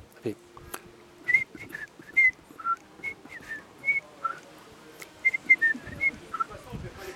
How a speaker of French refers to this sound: c'est l'Angélus du matin, 7 heures. Et c'est très particulier parce que si un jour on est enlevé, si un jour on nous bande les yeux et qu'on entend sans on se dit Je suis à Homs. Il n'y a qu'ici qu'il a ça.